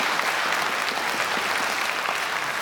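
An audience claps steadily after a speaker's Christmas jokes, a dense, even patter of many hands at a fairly loud level that holds without letting up for the whole stretch, with no voices rising above it.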